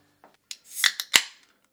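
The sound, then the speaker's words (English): A beer can cracks open with a few sharp metallic clicks and a loud pop, followed by a bright fizzing hiss as the beer pours into a glass, all over in under two seconds with no talking. “Cracking a beer, pouring it in a glass.”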